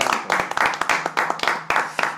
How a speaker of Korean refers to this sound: 그래서 이런 그 상황 속에서 하루하루 네, 버티고 계시는 직장인분들 우리가 살짝 박수 한번 쳐드릴까요?